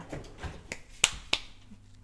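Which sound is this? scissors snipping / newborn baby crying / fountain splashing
scissors snipping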